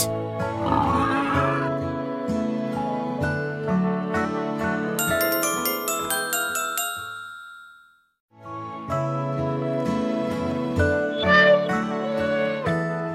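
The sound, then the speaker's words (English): A pig oinks in short grunting bursts near the start and again near the end, set against bright tinkling chimes and steady musical tones, with a brief silence in the middle. “Pig woke up too. Oink, oink, said Pig.”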